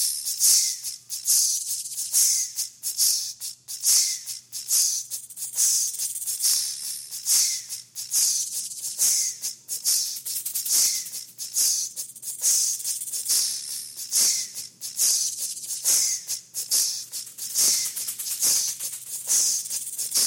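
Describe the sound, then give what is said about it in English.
A steady, groove-like pattern of sharp hisses and soft sibilant puffs, like a jazz beat built entirely from snake sounds. It runs continuously at a moderate volume with no voices. “So they tuned into their radio and they heard snake jazz, and okay. this is what it was. Tss.”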